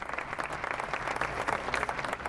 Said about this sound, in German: Beim Kunstarealfest an den Pinakotheken geht gerade die Performance zum Thema Flucht und Vertreibung zu Ende. Das Publikum klatscht artig.